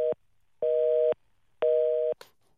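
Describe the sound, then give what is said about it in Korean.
A telephone busy tone after a call was cut off, the call having dropped three times: steady, mid-pitched beeps repeating in an even on-off rhythm, about half a second each with short gaps, then a brief click as it cuts off. “지금 전화가 세 번이나 끊겼습니다.”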